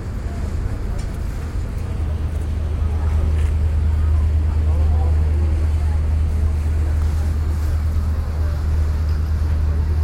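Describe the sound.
A ferry's engine drones steadily and low for the whole stretch as it crosses a harbour on a windy day, with wind buffeting the microphone and water rushing against the hull, a loud, constant wash of sound with faint voices mixed in.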